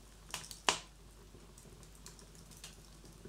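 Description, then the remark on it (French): A fire crackling softly, with a few sharp pops standing out over a low, steady hiss and scattered faint snaps. No voices are present. “Depuis combien de temps es-tu assise là comme ça À regarder les flammes danser, à écouter le feu crépiter.”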